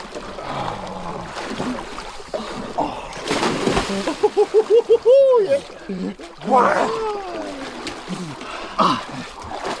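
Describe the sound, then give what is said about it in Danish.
Cold water splashes and sloshes over stones in irregular bursts, with people's voices mixed in and a brief run of rapid tonal chirps partway through. “Hold op, vand.”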